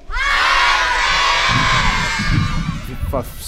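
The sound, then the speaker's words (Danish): A large crowd of children at Tivoli shouts a greeting to an astronaut on the space station, together in one loud, sustained burst of overlapping high voices, fading into scattered cheers and chatter by the end. “Vi skal råbe så højt, så han kan høre det helt op på rumstationen.”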